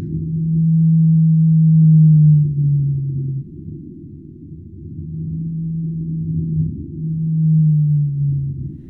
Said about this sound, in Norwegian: Det er nemlig sånn at ulike hvaltyper høres annerledes ut, en blåhval kan f.eks. høres slik ut.